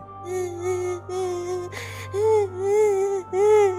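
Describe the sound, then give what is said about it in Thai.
A child cries in a series of drawn-out, wavering wails, broken by a quick sharp intake of breath midway, sounding faint and muffled, coming from the direction of a house's front door; no talking. “ได้ยินเสียงเด็กร้องไห้แว่วๆ มาจากทางประตูเช่นกัน”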